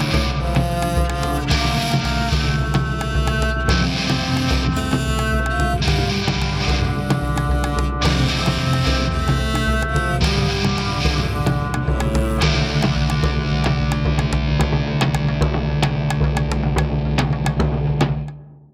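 A full band plays lively music with a South American flavor, dense and steady with crisp percussive hits, loud and close throughout before cutting off near the end. No voices.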